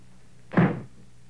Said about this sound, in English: Well, there's the front door, Ma. Must be the Fitz family arriving.